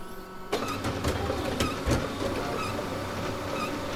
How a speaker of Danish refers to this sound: I dag skriver teksten ind på en computer ved hjælp af tastatur. Så trykker jeg på en knap, og teksten bliver printet ud.